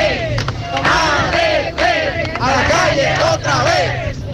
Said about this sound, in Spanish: En este momento varios profesores del Distrito Educativo 0805 están en la avenida 27 de febrero en protesta.